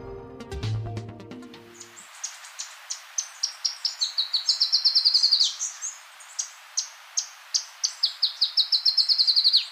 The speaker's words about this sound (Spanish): El arañero cabecinegro que estamos oyendo se encuentra en Colombia, Ecuador, Perú y Venezuela, en los bordes del bosque de montaña o en zonas con abundantes arbustos, hasta los 2.000 metros sobre el nivel del mar. No mide más de 14 centímetros